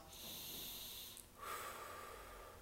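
A slow, deep inhale followed by a long exhale, airy, with breathy hissing and no talking, done as a breathing technique to focus on the breath.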